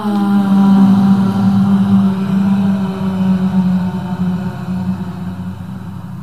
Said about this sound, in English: We're going to breathe into the chest center. We're going to breathe out with a sound that supports your chest with a ha.